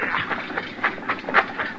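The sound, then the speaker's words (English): A steady, rumbling patter of many horses of a patrol, a whole company of bluecoat cavalry, galloping together. Rapid overlapping hoofbeats rise and fall in loudness with no voices over them. “Listen. Horses. A lot of them.”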